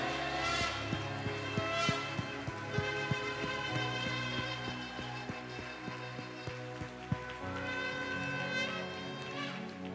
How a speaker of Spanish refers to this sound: Que suenen las trompetas.